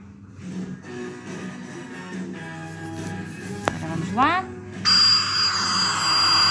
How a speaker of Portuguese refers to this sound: Ora bem, vou meter o barulho, ver se vocês conseguem ouvir. Ora bem, barulho de aspiradores.